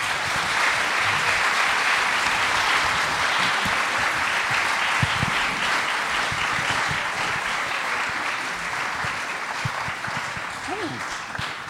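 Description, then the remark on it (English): Sustained applause from a live audience as two guests are welcomed onto a stage, a dense wash of clapping that stays loud and steady for about ten seconds before easing slightly, with faint voices and cheers mixed in. “ladies and gentlemen, would you give a, a warm welcome to Amy Lawrence and Philippe Auclair”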